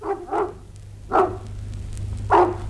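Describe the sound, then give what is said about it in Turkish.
A dog barks four times in two quick pairs-ish bursts: a fast double bark, then a single bark, then another after a pause, over a low steady hum. “Aa, bu köpek de nereden çıktı?”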